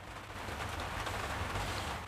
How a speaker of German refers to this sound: sondern als sie am Abend im Bett liegt, hört sie nur auf ihrem Dachfenster den Regen plätschern.